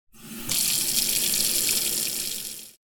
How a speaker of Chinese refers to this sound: 雨蛙仆人用力的把水龙头转到最开